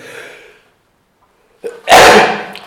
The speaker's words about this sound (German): Ich muss kurz niesen.